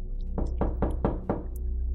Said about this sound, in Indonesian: Sepertinya lama sekali teror itu berlalu hingga aku mendengar ketukan di pintu lagi. Namun kali ini irama ketukannya berbeda.